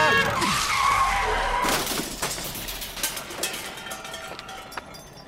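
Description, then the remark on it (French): A truck's tires skid loudly, screeching for a couple of seconds, then a clattering crash of metal and breaking bits as a bicycle is hit on the road, with scattered rattles and debris settling afterward. “Fais attention au camion Tommy Tommy, saute”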